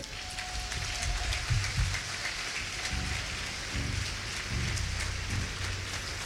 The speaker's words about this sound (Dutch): We gaan je een applaus erop.